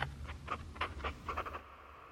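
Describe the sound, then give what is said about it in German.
A pen scratches across paper in a quick series of short strokes, fairly quiet, over a low steady background hum, as someone signs a contract setting out the terms of an investment. “Swift hebt den Stift hoch. Los geht's.”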